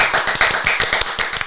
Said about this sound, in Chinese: 拍拍手。